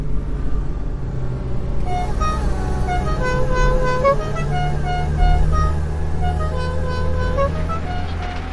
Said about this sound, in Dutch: We rijden nou even lekker een stukje door. Hè? Je hoort hem lekker brommen, de auto. Dat gaat hartstikke mooi.